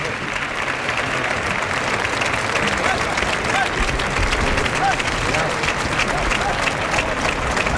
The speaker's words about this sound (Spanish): Muy bien Espartaco. La, ovación que le están pegando a Espartaco es de cualquier manera.